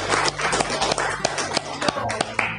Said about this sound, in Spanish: bueno, eh, démosle un aplauso a la señorita que nos acaba de contar.